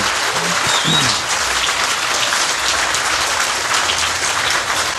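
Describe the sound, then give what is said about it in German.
Steady applause from a sizeable audience, dense crackling claps filling the whole stretch at an even, fairly loud level, with a faint voice or two briefly audible near the start. “Jetzt müssen wir aber, genau, den Applaus einsammeln hier.”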